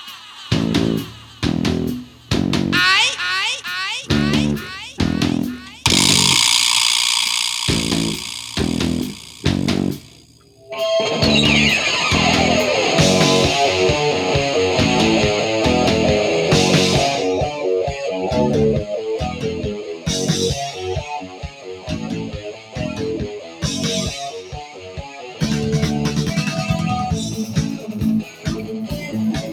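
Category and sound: hard rock song playing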